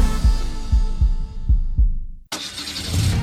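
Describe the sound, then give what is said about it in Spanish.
A deep, thumping heartbeat sound effect in a Banco BHD advertisement supporting the Dominican team at the World Baseball Classic pulses in steady doubled beats for about two seconds, then cuts abruptly into a burst of bright, roaring noise like an engine or crowd swell. “solo latido que se escucha en todo el mundo.”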